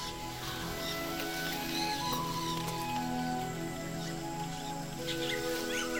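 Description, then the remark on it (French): Steady rain patters down through rustling leaves in a continuous, even hiss, with faint bird chirps now and then over a low sustained hum. “Tu entends tous ces sons autour de toi. Le chant des oiseaux, le craquement des branches, le bruit des feuilles, la pluie qui tombe.”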